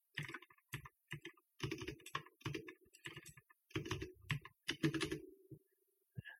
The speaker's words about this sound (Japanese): キーボードの音がちょっとうるさいですけども。